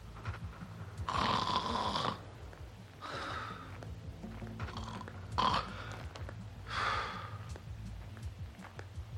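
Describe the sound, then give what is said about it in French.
Loud, rasping snoring of a man, the school caretaker, asleep in a forest, in a slow rhythm, with four or five drawn-out breaths spaced a couple of seconds apart over a low, steady background rumble. “Il ne fallut guère de temps aux deux enfants pour retrouver Roger grâce à ses ronflements.”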